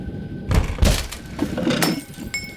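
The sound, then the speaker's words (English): A door is rammed and broken open: several heavy, booming impacts in quick succession with cracking and splintering, ending in clattering, ringing debris. Loud, with no one speaking. “Help me ram the door.”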